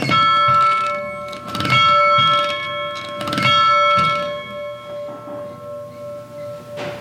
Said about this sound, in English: make a wish, say a prayer, ring the bell.